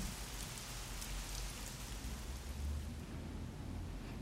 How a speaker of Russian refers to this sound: Как будто она даже не замечает, что за окном уже стемнело и давно пошел дождь.